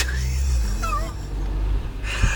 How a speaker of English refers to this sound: We've been yeah, sitting in a car in Marnham Road.